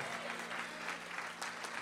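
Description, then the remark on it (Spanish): An audience applauding the Lord steadily, a dense wash of many hands clapping that stays loud and even throughout, with no clear voices standing out. “Alguien le da un aplauso fuerte al Señor.”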